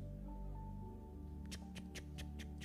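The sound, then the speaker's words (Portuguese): A person imitates a clock's tick-tock with about six sharp, evenly spaced tongue clicks, clear over a low steady hum, starting after a brief quiet stretch. “O tic-tac do relógio, né? O relógio faz isso aqui, não faz?”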